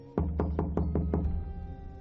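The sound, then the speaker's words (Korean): A quick run of six loud knocks on the door of a guesthouse (pension) room in the evening, evenly spaced and resonant, with a deep hollow thud that lingers briefly after the last one. No voices. “갑자기 노크 소리가 들려왔다.”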